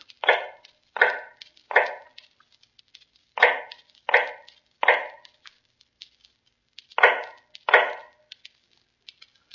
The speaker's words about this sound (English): Now in the North Tower, cell number 105 is heard all day a low, hammering sound. The sound of an old man making shoes in the dark.